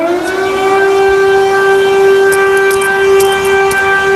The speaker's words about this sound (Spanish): Se están produciendo combates importantes y ahora mismo está sonando lo que parece ser una alarma antiaérea aquí en el centro de Kiev. Estamos escuchando el sonido directo que nos llega desde aquí.